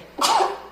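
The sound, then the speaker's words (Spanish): A single sharp sneeze bursts out, a sudden noisy blast that trails off quickly into quiet. “Hoy he estornudado todos los capítulos.”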